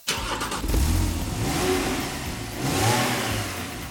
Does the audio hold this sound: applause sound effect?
no